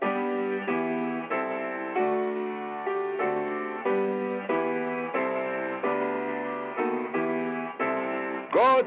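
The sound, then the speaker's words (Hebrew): A stately instrumental rendition of the British national anthem, God Save the Queen, in three-four time, full sustained chords moving in slow, even steps, played loud and clear with no voices, ending on a brief flourish. “ההמנון הבריטי הוא בכלל שיר תפילה”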